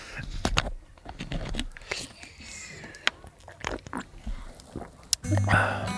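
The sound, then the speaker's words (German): Quiet ASMR sips from a bottle of water, with wet mouth clicks and swallows, ending in a short crackle of plastic. “Ich nehme jetzt noch einen Schluck aus der Flasche Wasser.”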